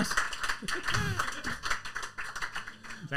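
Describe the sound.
An audience applauds, a dense patter of many hands clapping at once, with voices calling out over it. The clapping stays steady and fairly loud for about three seconds.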